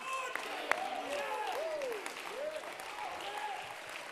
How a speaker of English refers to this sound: Yeah, that's why we clap. That, that's why we stand. That's why we run the aisles. That's why we worship.